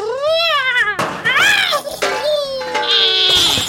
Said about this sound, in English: the cat's attaching my head. It won't let go. Ow, ow, ow.